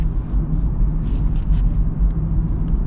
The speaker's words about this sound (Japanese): この乗り物は何だいどうしましたいきなり車だよこれはこれがこっちの世界の乗り物か車は初めてかい